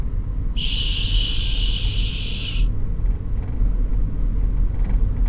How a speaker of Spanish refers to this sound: El tren está pasando y sus toneladas hacen que todo el pueblo vibre, tiembla ante su paso.